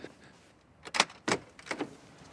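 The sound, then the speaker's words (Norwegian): Three firm knocks on the closed door of a parish office in Jerusalem, slightly uneven in spacing, with no talking. “Jeg banker på på menighetskontoret.”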